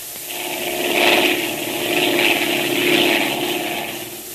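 A propeller airplane engine drones steadily in flight, its buzzing roar swelling and fading in slow, regular waves, fairly loud, with no voices.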